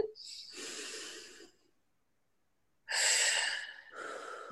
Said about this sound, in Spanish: Lo primero es, y lo más importante, una de las formas más rápidas de traerte a ti mismo al presente es respirar. Mm. Respirar. y breathe in.